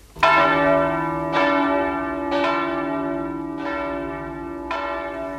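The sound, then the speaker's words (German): Large church bells of St. Nicholas Church in Leipzig ring out at midnight, at the start of a new year, in a slow, steady peal, each strike landing about a second apart with long, shimmering overtones that overlap and sustain. No voices are present. “Mit den Glocken der Leipziger Nikolaikirche beginnt ein neues Jahr beginnt ein neues Radioprogramm.”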